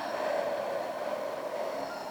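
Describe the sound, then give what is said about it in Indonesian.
A long, slow exhale after a deep breath, done as a breathing exercise to calm panic or anxiety: a steady breathy rush of air lasting about two seconds at an even, moderate loudness, with no talking over it. “Coba uh, teman-teman ambil nafas yang dalam, hembuskan.”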